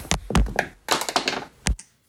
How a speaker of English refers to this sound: Sounded like maybe you dropped your phone right at the end or something fell off the desk.